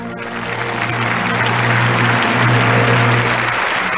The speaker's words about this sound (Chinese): 演出一结束，台下立即爆发出热烈而持久的掌声。延安的军民完全被这深沉激昂的歌声打动了，完全被这部作品伟大的气魄感染了。